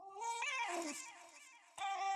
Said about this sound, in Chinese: 反正我就把那个影片，然后把它取样了，然后大家听到那个哎、欸、那个声音，其实是那个该笑屁啊，那其实是那个我在网络上找到一个柴犬的声音。